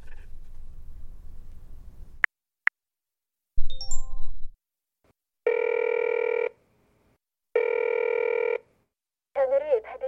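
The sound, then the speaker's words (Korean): A phone line rings with no answer: two long, steady, buzzy ring tones separated by a pause of silence, following a couple of sharp clicks and a brief rustle at the start. “제발 전화 좀 받아.”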